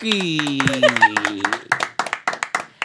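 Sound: applause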